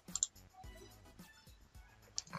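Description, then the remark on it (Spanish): A couple of soft, sharp computer mouse clicks, one near the start and another about two seconds later, quiet with faint background noise in between, as someone clicks a recover button to recover deleted files. “vamos a dar ahora clic aquí en recuperar para que nuestros archivos estén recuperados”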